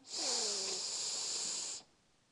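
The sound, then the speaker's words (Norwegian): A single deep breath drawn in through the nose as part of a relaxation breathing exercise, a steady airy rush lasting under two seconds, fairly loud, then stopping abruptly into quiet. “Pust godt inn med nesa,”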